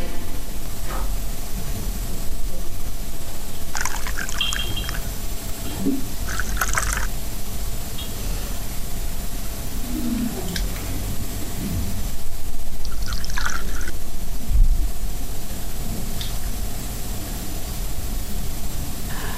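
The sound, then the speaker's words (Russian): Water pours in a steady, close hiss of liquid for the whole stretch, with a few brief splashes and clinks breaking through the continuous flow. “Наливай.”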